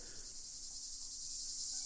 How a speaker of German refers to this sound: Vielleicht kommen dann Klänge dazu. Zikaden in der Sommerhitze